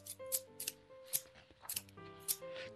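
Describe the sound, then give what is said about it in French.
Scissors snip crisply through pieces of wool about six times in an uneven rhythm, each cut a short, bright crunch, as warm gaiters are cut out, over gentle, sustained music playing softly underneath. “clic, clac, clic, elle taille les morceaux de laine et confectionne des guêtres bien chaudes.”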